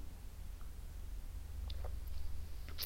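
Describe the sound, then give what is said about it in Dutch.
A quiet sip of coffee, a few soft slurping and swallowing sounds in the middle, over a steady low hum with no talking. “Ik neem trouwens ondertussen heel even aan een slok koffie.”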